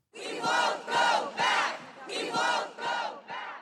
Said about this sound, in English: We hear the chants of the people on the ground in front of the Supreme Court in Washington, D.C., the day after the Politico article was published about the Roe v. Wade potential overturn.